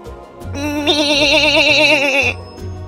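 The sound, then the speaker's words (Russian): A young goat kid lets out one long, plaintive bleat with a quavering, wobbling tone, loud and close, lasting a couple of seconds with nothing else around it. “Цыпленок подошел поближе. Это был маленький козленок.”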